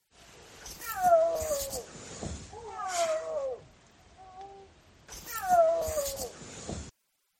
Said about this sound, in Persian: شنیدن اون صدای پلنگ برفی از درخشانترین خاطرات این سفرم بودش